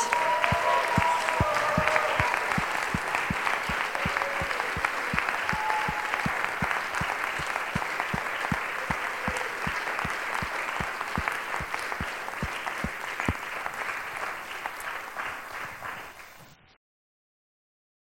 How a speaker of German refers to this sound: Lasst uns Jesus doch ehren und ihm nochmal einen Applaus geben, weil er ist es würdig.